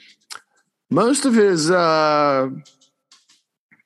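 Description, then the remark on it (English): A few light, sharp clicks tap out sparsely on a hard floor from a dog's claws as it moves about, some before and some after a man's short stretch of speech. “if you hear clicking in the background my dog”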